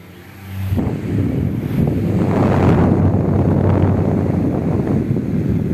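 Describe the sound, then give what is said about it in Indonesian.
In an advertisement, a loud, steady rush of blowing air from an Arasi-brand electric fan kicks in after a brief quiet start and continues without a break, with a low droning hum underneath. “oke itu dia iklan kipas angin Gimana tertawa dong iklan kipas angin yang dari merek Arasi.”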